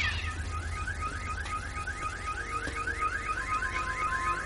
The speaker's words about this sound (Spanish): el jorobado apaga la alarma del coche con un gesto de la mano.